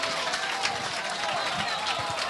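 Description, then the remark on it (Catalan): A live audience at a radio show applauds loudly and steadily, a dense wash of clapping that holds at an even level for a couple of seconds, with faint voices blended into the noise. “Heu d'aplaudir molt fort perquè se senti per la ràdio.”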